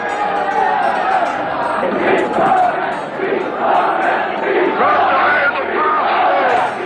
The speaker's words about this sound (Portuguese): viveram-se momentos de grande tensão, que só acabaram com a partida de Caetano do quartel dentro de um chaimite, por entre gritos da multidão.